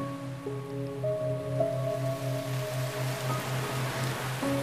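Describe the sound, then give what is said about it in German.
The first raindrops of a beginning rain patter softly and steadily beneath a droning, pulsing musical tone, with no voices present. “noch bevor ihr sie erreicht habt, fallen die ersten Tropfen.”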